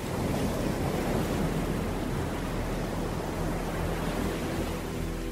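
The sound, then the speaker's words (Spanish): Ocean waves and swell roll in a steady, continuous wash of surf, broad and rumbling with a low wind-like hiss throughout and no distinct breaks or voices, out on the open ocean with nothing but sea to the horizon. “Estuvimos de pronto en algún lugar del océano, sin motor, velas ni remos, sin comunicación ni locomoción, sin bártulo alguno de navegación u orientación, nada más que mar en el horizonte.”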